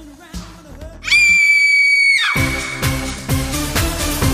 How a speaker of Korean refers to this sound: 아 깜짝이야 왜 비명을 지르고 그래